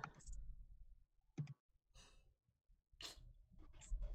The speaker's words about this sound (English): I can hear my dog snoring.